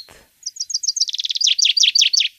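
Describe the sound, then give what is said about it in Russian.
A common chaffinch of the European subspecies sings one full, clear song: a run of bright descending trill notes that speeds into a rapid rattle and ends with a louder flourish, with no other sounds around it. “А, а вот нет, все-таки зяблик сейчас у нас э, зяблик. долетит до нас. До Европейский подвид.”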